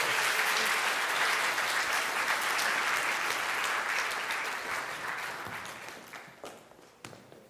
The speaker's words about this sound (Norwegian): Og dette er en fantastisk gjeng også, som har satt av så mye tid til å være sammen med konfirmantene. Så dere kan gi dem en applaus òg